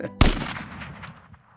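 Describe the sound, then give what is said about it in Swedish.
A sharp, loud gunshot cracks out and rolls away in a long echoing tail, with a few fainter reports trailing behind it, as geese are shot over reeds during hunting season. No voices are heard. “I samma ögonblick small det till. Pang, pang!”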